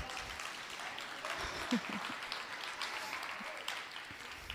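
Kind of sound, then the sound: crowd, applause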